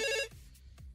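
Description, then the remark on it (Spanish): A telephone rings loudly for an incoming call from a listener, with a bright, buzzing electronic tone for a fraction of a second, then cuts off, leaving low background rumble and a couple of faint clicks. “Tenemos llamadita de nuestro público para que nos digan.”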